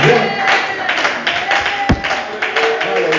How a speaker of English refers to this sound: Let's clap our hands the Lord and give him what he's